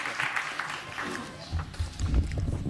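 An audience applauds with a dense, steady patter of many hands clapping, and dull low thumps join in during the second half before the clapping fades.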